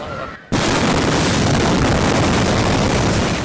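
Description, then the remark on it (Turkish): A sudden, massive explosion with a shock wave erupts about half a second in, during a young couple's wedding-day photo shoot, then a dense roar of rumbling noise and debris sustains at full loudness for several seconds, overwhelming. “Bu genç çiftin ise en mutlu gününde yaşandı patlama.”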